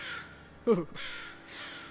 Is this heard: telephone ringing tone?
no